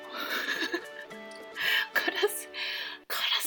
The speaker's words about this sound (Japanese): ちょっとカラスがうるさいな